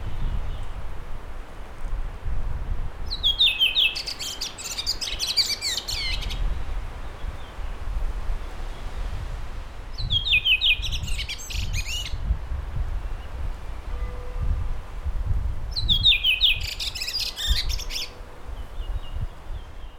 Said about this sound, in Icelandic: Fugglasöngur kemur ekki í ströymum og stefnum, heldur kemur hann bara og fer. Og er alltaf svolítið cool og ég tel hann vissulega að vera eilíðarkúl.